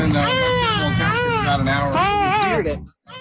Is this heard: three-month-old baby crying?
yes